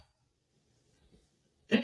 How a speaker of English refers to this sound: you can hear me like sipping